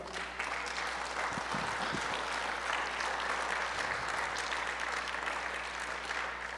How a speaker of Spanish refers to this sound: ¿Alguien puede decir amén? ¿Alguien puede aplaudir todavía?